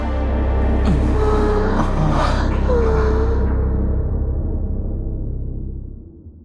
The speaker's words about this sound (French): Et aujourd'hui, on va écouter le son de l'orgasme.